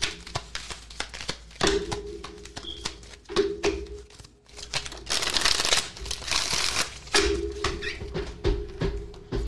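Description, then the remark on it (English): Cards being shuffled, a run of crisp snapping riffles and soft clicks, with a denser, louder flurry of shuffling partway through and a faint steady hum beneath. “Keep shuffling. Keep shuffling.”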